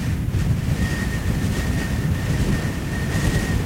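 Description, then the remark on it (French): Steady roar of ocean surf with waves washing in on a vast, deserted beach, heavy low rumble and wind buffeting the microphone throughout; no voices, a continuous loud wash of water. “J'adore jouer dans les vagues.”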